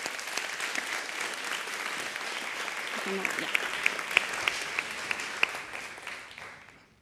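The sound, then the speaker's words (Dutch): An audience claps steadily to welcome a media theory lecturer, a dense wash of many hands with a few sharper, louder claps standing out, sustained for several seconds before gradually thinning out toward the end. “Dus geef haar een hartelijk applaus”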